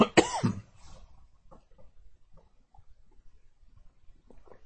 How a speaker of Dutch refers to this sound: Sorry hoor. Inmiddels bent u het natuurlijk van mij gewend dat ik nog wel eens een keer moet hoesten. Denk daar verder niks ernstig van.